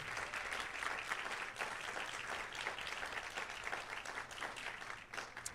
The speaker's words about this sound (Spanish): Denle un aplauso fuerte al Señor, claro que sí.